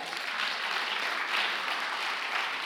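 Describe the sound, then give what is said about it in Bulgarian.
An audience applauds steadily, a dense wash of many hands clapping at an even level with no break and no voices standing out. “О, ако ръкопляскаш, ръкопляскай като че е за Бог, а не за мен защото аз нямам нужда от твоето ръкопляскане и той няма нужда, но ти имаш нужда да освободиш твоята вяра и да му дадеш слава за това, че е бил верен”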